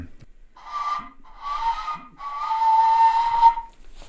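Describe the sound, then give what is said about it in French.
A breathy, airy flute made from a hollow bone with no mouthpiece plays three sustained tones, the last one longest and wavering in pitch, with soft pauses between, fairly loud with no talking over it. “Et il n'y a pas du tout l'embouchure, ce qui est, euh, c'est un os qui est creux, donc euh, bah, euh, bref, des deux côtés.”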